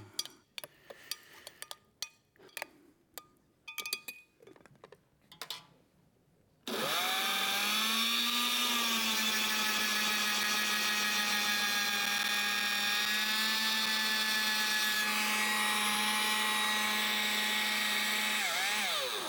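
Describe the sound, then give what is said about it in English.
A few seconds of scattered knocks and clatter, then a blender abruptly roars to life, breaking a solid gel into particles to make a fluid gel (microgel), with a loud, steady high-pitched motor whine that runs unbroken to the end, shifting slightly partway through. “Okay, so you have a solid gel here, and then once you blend it, what you have is a bunch of particles, right, of gel that we've broken up, basically in a fluid”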